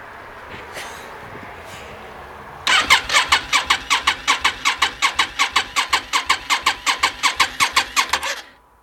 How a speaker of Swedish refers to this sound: Men nu ska vi se om den startar först. Jag slog på tändningen, tryckte i choken Sanningens ögonblick.